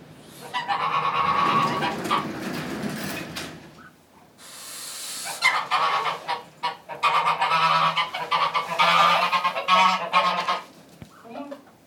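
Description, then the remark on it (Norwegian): Smålensgås geese honking loudly in a dense, overlapping chorus, with harsh repeated calls rising and falling over about twelve seconds, briefly dipping before resuming, with no talking. “Eh, så er det smålensgjessa.”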